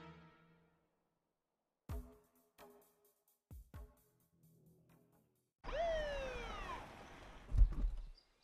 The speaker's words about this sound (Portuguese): Ambulância! Ai, meu Deus. O que é isso?